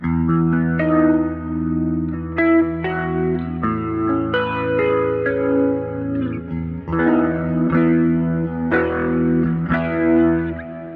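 A growling, distorted electric guitar played through an amp profiler plays sustained notes and chords with a thick, saturated tone and a touch of chorus and echo, loud with no talking. The effect is set to slow speed, 12 centimeters distance, stereo at 90 degrees and 100% mix.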